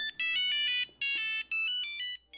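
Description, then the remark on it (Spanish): An old mobile phone ringtone plays a bright, electronic melody in three short bursts of rapid, beeping tones, fairly loud, with no voices over it. “cuando tu teléfono sonaba así,”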